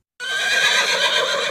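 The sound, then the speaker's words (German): A horse lets out one loud whinny that bursts in after a moment of silence and stays strong and shrill for over a second, with no voices. “Pferd das war ein Pferd.”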